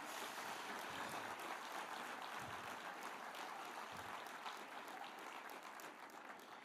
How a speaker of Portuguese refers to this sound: Deu para Jesus uma forte, forte salva de palmas.